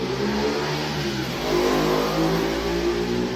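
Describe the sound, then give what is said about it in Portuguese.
A motorcycle engine revs and drones steadily through the whole moment, its pitch shifting midway as it accelerates past outside, loud, with no voices over it. “Sempre na hora do estudo passa a moto.”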